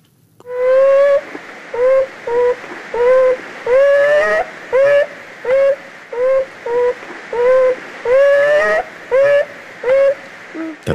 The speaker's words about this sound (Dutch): is een raar geluid, hè? Ik vind dat iets tussen een kraanvogel en een aap of zo. Ik weet het niet. Ja, ja dit zijn is vermoedelijk ook wel het geluid van een jonge bever. het geluid wat je hoort als je in de buurt van de burcht bent.